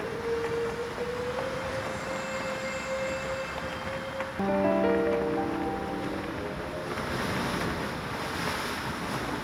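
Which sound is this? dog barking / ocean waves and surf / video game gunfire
ocean waves and surf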